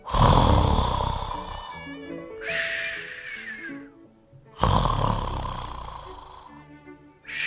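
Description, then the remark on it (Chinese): A voice imitates a little mouse snoring softly while asleep on a tiny bed under a duck's bed: two drawn-out, rasping breaths with breathy exhales between them, followed by a quiet hushing sound. “小小的老鼠正睡在一张小小的床上，轻轻地打着呼噜。”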